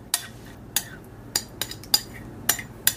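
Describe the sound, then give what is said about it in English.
A spoon scrapes and clinks against dishes as food is transferred from a microwave-safe bowl into a casserole dish, in a series of sharp, irregular taps, about seven in three seconds, fairly loud, with soft scraping between them and no talking. “So transfer it from the microwave safe bowl into your casserole dish, which we are doing now.”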